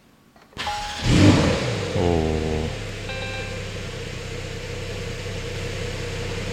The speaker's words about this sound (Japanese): うーどうですか、この音。ちょっと待って、すごいなんかね、これアクセル踏んだ時のこの車のちょっと震える感じ。